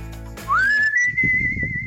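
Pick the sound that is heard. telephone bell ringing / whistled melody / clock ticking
whistled melody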